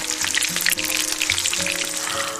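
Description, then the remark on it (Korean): Chicken sizzles steadily in hot oil as a chicken shop owner fries it, a dense, continuous crackle of popping bubbles, fairly loud, with a faint low hum underneath and no one speaking. “와, 소리만 들어도 너무 맛있더라고요.”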